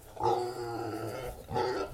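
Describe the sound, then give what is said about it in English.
A female pot-bellied pig grunts in a small barn on a farm: one long, rumbling grunt followed by a second, shorter one, fairly loud with nothing else in the background. “She's a pot-belly pig.”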